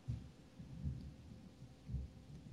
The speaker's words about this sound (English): I can actually hear the thunder uh, from your house. It's coming your way. Yeah. Well, no, it, there's there's thunder here right now.